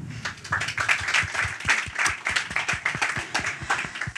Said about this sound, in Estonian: selge, aga suur aitäh sulle, aplaus.